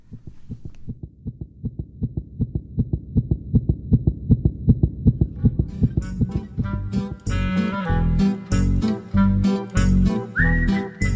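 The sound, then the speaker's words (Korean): A fast, steady fetal heartbeat of a baby in the womb, heard with an ear against the mother's belly, thumps rhythmically and strongly for several seconds, then gives way to soft music with a rising melodic tone. “뱃속의 생명에게서 작고도 힘찬 심장 박동을 느낄 수 있었다.”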